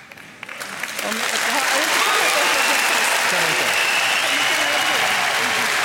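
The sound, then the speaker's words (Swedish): A TV studio audience breaks into applause, quickly building from scattered claps to a loud, sustained wash of clapping with some voices mixed in. They react as Jimmie Åkesson holds out his hand to Märta Stenevi and she does not take it. “Nej, man hörde ju att publiken mm. Eh, reagerar på det där.”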